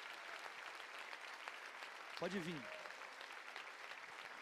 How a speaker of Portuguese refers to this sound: Vamos aplaudir essas vidas que estão vindo.